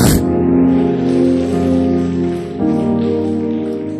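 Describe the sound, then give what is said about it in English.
An audience at a church sermon claps their hands and shouts in a loud, dense, continuous patter, with sustained musical tones or voices ringing underneath and a brief surge partway through. “Clap your hands and shout, I break that yoke.”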